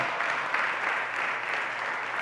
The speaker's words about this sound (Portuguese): Você pode aplaudir o nome do nosso Salvador? Faça isso.